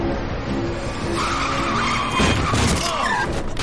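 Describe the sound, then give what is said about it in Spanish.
A car's tires squeal in a long, loud skid as it runs into a person on foot, followed partway through by a dull, heavy impact as the screeching continues, with no talking. “Un coche atropella a Gon.”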